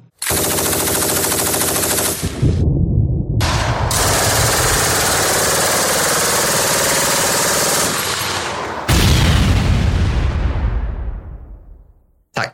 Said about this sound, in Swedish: Men jag tycker så här, vi har inte jättemycket explosioner eller kulsprutor, så kan vi få in dem dem nu.